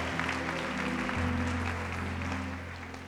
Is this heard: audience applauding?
yes